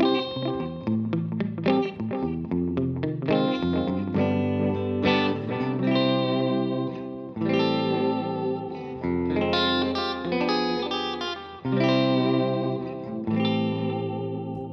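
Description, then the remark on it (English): An electric guitar plays a slow, melodic line with a 1950s sound through an echo unit, each note ringing out with repeating trails and a shimmering, chorused tone. No one speaks over the playing. “So it's still got that real 50s sound, but the way he sort of uses the the echo unit and, and what have you.”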